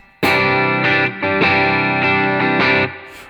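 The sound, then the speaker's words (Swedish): An electric guitar played with an overdrive pedal switched on, giving thick, gritty sustained chords. It's struck several times in a loose rhythm, loud and saturated, with no voices. “där så drar jag igång pedalen. Lite fetare, direkt får man ja, lite grann.”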